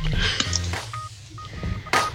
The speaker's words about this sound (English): All this dinging going on. Now the dinging is my phone. I'm going to turn that off.